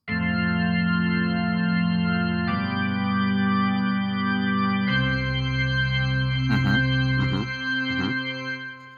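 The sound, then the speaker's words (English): Sustained church organ chords, as played at a funeral service, ring out loud and full, shifting to new harmonies a few times, with some wavering higher notes near the end before the sound fades away. No voices. “You know, you probably hear like some organ playing in there.”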